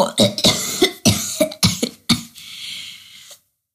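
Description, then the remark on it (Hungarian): A voice makes a string of rough, hoarse croaks in place of singing, about seven quick raspy bursts, then trails off into a breathy, scratchy rasp before stopping. “Továbbra is csak recsegett, csikorgott, méghozzá olyan szörnyen, hogy felébresztette a bátyját”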